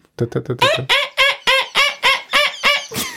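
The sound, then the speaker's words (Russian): A person mimics a Eurasian wryneck's call: a loud run of about ten quick, nasal, whining notes in steady rhythm, delivered alone without other talk. “Ее в мае легко услышать, она вот так вот кричит.”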